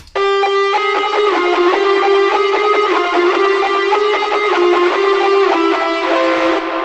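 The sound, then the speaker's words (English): A fuzzy, distorted electric guitar holds thick sustained notes that wash together in heavy reverb and delay, staying loud and steady for about seven seconds with no voices. “And as you can see, it's drenched in reverb and delay.”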